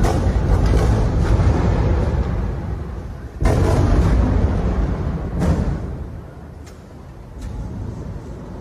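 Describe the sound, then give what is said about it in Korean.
Repeated explosions from bombs falling in the Gaza Strip boom out over a constant low rumble, several sharp blasts a second or two apart, some loud, others duller. No one speaks. “네, 역시나 지금 뭐 계속 쾅쾅쾅한 떨어지는 소리 들을 네, 수 있어요.”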